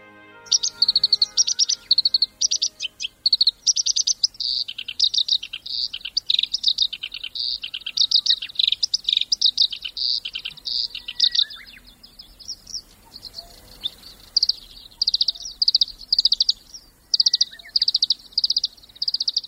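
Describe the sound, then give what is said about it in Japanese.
A black-browed reed warbler, about 13 cm long, perched on reed stems beside a stream flowing through pastureland in Embetsu, Teshio District, Hokkaido, Japan, sings in a continuous, busy stream of high chirps and buzzy trills, phrases repeating rapidly with only brief pauses, no voices present. “まさにその吉の茎につかまり小川のほとりで元気にさえずっているとても小さな鳥がいました”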